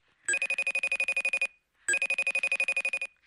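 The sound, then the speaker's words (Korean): An internet phone call rings in Paraguay in two electronic bursts, each a rapid trill of about a dozen quick pulses lasting just over a second, separated by a short pause. No one speaks. “신랑이 2월 15일 출국하자마자 친정 어머니께서 인터넷 전화를 걸어오셨습니다.”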